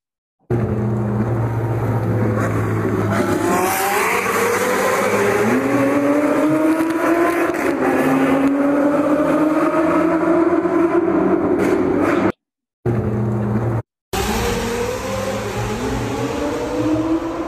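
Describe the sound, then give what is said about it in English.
A sports car engine roars loud as it accelerates through a tunnel, pitch climbing repeatedly through several gear shifts, with two brief cuts near the end and no voices. “You can actually see us like rip it in the tunnel”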